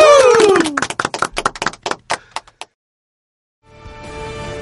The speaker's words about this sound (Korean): 박수 네, 한번 쳐드리죠.